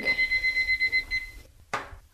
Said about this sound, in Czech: Ano dáme do trouby, tak a fertik. Dáme budík na 40 minut.